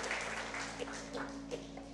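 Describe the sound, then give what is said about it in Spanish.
An audience at a Spanish-language church service applauds the Lord in a steady, dense wash of clapping that holds at an even level for the whole two seconds, with a low electrical hum underneath. “Dele un aplauso, Señor, y tome asiento.”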